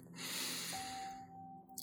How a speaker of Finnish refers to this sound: Ota syvä hengitys sisään